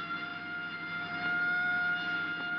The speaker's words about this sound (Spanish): Corte la sirena.